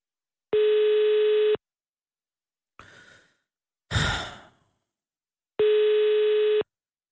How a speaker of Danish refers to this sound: Åh, oh, det er en god ringetone. Wow.